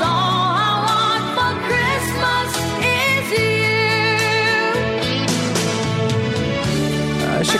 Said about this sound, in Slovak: pôvodná skladba od … tá znie takto